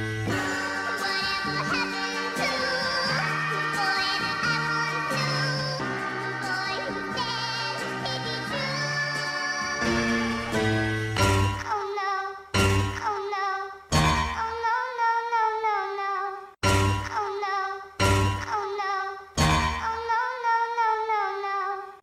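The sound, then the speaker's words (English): A catchy pop song used in a viral video trend plays loud, with steady backing music at first, then punchy vocal phrases chopped by sudden brief silences into a stop-start rhythm. No one talks over it. “So this you know the … trend on TikTok which we'll put right here.”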